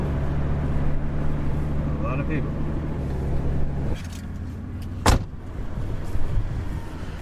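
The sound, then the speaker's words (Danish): A car engine idles with a steady low rumble that shifts partway through, followed by a sharp thump like a car door, with muffled voices in the background, at a food distribution on a huge school parking lot in Tennessee packed with hundreds of cars. “er lige ankommet til en maduddeling, øh, som er på sådan en kæmpe parkeringsplads ved en skole øh, i Tennessee.”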